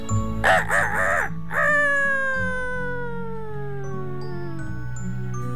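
A rooster on a farm crows once, loud: a few quick wavering notes that stretch into a long, drawn-out call sliding downward, with a low steady hum underneath.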